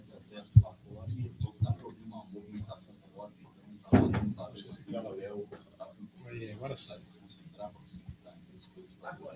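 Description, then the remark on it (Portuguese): A door shuts with a single solid thud partway through, preceded by a softer knock, while indistinct voices murmur around it. “Dá para fechar a porta, só assim não consigo falar se eles aí não estiverem calados, não, não vou conseguir falar assim.”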